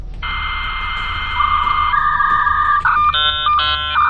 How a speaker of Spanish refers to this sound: Recordemos que este sonido que escuchamos ahora era el sonido que señalaba que nadie podía llamarte por teléfono, que en ese momento te ibas a conectar a la red. Exactamente, una cosa media analógica, porque tu conexión venía por una línea telefónica